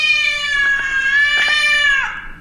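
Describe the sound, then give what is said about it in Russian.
A cat standing in the middle of a room at home lets out one long, loud, sustained yowl, steady and insistent for about two seconds before bending downward and trailing off, with no talking. “Она просто стоит посреди комнаты и орет.”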